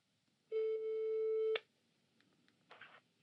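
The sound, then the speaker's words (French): A single steady ringback tone from an outgoing phone call to Jean Viard at his house in the Vaucluse, made from a small bedroom turned into a radio studio, sounds for about a second, then cuts to near silence with a faint rustle at the end. “je suis sur le point d'appeler Jean Viard qui a accepté de parler de notre impression de ne plus avoir de temps libre.”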